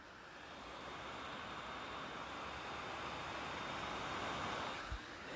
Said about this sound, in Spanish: Esos son los ventiladores del BTO, no sé si se ha escuchado, los ventiladores del BTO que acaban de arrancar porque esto chupa toda la CPU que tengas y un poquito más.